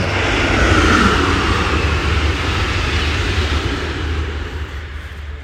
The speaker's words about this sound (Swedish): Eh, och sen, ja nu kommer det ett tåg till här så att...